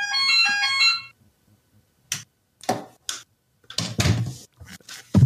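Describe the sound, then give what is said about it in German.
A melodic doorbell ringtone plays a quick run of bright, stepped electronic notes for about a second, then after a pause come several irregular thumps and clattering knocks. No one speaks. “Das, das ist aber ein ganz angenehmer Ganz angenehmer Klingelton.”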